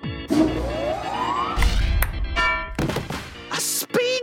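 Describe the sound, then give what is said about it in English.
A ping pong ball served by the robot Robozuki smacks Bobby Wonder right between the eyes with a dull thunk, knocking him out cold, surrounded by busy cartoonish effects: a rising whistle-like sweep, tonal stings and bursts of noise, with no talking. “Oh, you knocked him out cold.”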